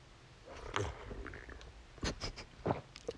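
Quiet gulping as someone downs a shot of liquor, with a few distinct swallows spaced out over a few seconds and soft throat and mouth noises between them, no talking.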